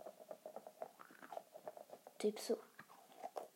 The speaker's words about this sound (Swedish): Så är det... Vad heter det? En fidget toy som jag köpte igår. ja, det kanske stör.